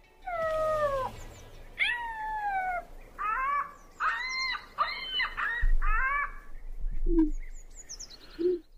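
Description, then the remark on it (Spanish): A voice imitates an ostrich in an imitation contest with a series of loud, strained, wailing cries, some sliding downward and others broken into quick pulsing yelps, ending with two short, quieter squeaks. “¿Te dije imita avestruz o te dije imita perro atropellado?”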